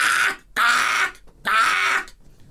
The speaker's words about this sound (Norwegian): Du har så mye lyder eh, som er koselige, og så kommer måken. Ka -ka!